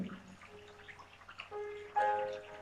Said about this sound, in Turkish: Suyu dinle. Suyu duy. Suyun huzurunu hisset.